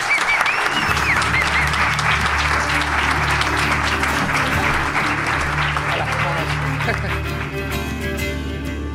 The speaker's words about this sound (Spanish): Esto merece un aplauso enorme, por favor,